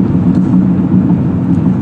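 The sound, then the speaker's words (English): A steady, low engine rumble and road hum from a car driving on the open road, constant and fairly loud with no voices, a smooth continuous drone throughout. “Again, I'm still on the open road as I'm heading back from spending some time with family, and so I decided I wanted to, another train of thought came into my head, so I thought I would share it with you, my beloved audience.”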